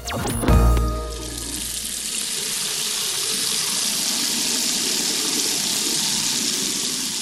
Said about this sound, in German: So läuft es bei mir jeden Morgen. Ich gehe ins Bad und drehe den Wasserhahn auf, anschließend Wasser rein in die Kaffeemaschine.